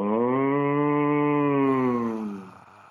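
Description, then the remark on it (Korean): A person imitates a cow with one long, steady, nasal moo that holds for about two seconds before trailing off into breathy noise. It is loud, with no other sounds. “소 울음소리 먼저 할까요?”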